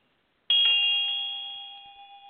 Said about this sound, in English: Mine elevates the incense boat, and Field rings the bell.